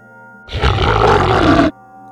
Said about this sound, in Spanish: En el momento en que cerró los ojos, el gruñido volvió a sonar esta vez más fuerte, más poderoso, más cercano.